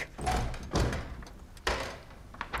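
window being opened

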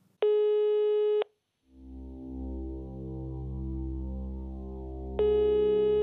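telephone call ringing tone

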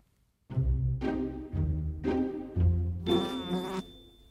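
fly buzzing

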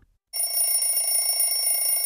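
alarm clock ringing

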